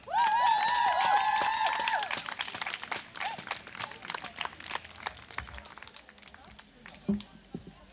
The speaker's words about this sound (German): Auch ihr verdient eigentlich einen Applaus, den ich euch geben möchte.